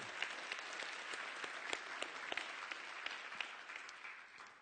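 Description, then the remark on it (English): An audience breaks into sustained applause, many hands clapping steadily and densely for several seconds, with a few sharper claps standing out from the even wash of sound. “That's a good hand clap space right there. Let's do that right there.”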